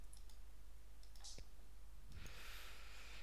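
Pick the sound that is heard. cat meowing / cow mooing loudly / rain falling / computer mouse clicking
computer mouse clicking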